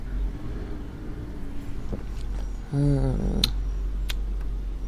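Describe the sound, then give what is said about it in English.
A garbage truck rumbles past on a Monday morning, its deep engine drone steady throughout, with a person briefly humming "mmm" partway through and a couple of faint clicks. “Monday morning, you'll be able to hear the garbage truck going by there.”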